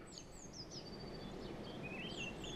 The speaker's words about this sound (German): Aber heute sind die Vögel lauter und der Wind.